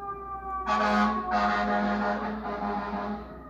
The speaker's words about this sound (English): You you hear this uh, fucking fire truck going past, right? It's 1.50 in the morning. Who can possibly be on the street?